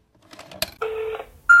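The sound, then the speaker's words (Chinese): Telephone line tones while a customer service call is being transferred to the duty manager: a few soft clicks, then a steady buzzy tone lasting under half a second, followed after a short gap by a sharper, higher beep. “那接下来就是漫长的等待以及他转接的过程，然后就是一位女子接起了电话。”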